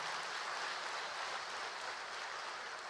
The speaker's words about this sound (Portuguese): Você pode dar um aplauso ao nome de Jesus por causa dessa resposta?